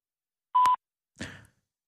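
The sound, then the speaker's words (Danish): A single steady electronic beep from a telephone answering machine, signalling the caller to leave a message, sounds clearly for about a quarter second, followed after a pause by a brief, softer rustling noise. “Venligst indtal en besked efter biptonen.”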